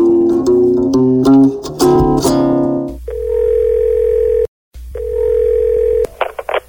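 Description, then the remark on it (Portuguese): A quick run of keypad dialing beeps gives way to a steady, loud ringback tone that pauses briefly and repeats, the sound of an outgoing phone call to the caller's mother in San Francisco on Mother's Day ringing on the line. “Liguei para ela no Dia das Mães.”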